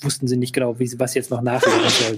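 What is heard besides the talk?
sneeze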